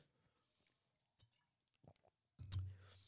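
Mouth sounds of someone sipping water: a few soft wet clicks and slurps, then a louder gulp with a sharp click near the end, no talking.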